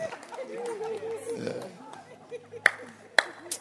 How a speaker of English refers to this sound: Okay, there's a man. Can you clap your hands?